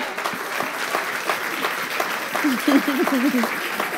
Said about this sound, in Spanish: Si usted va a aplaudir, hágalo.